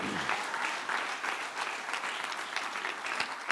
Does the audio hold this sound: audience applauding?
yes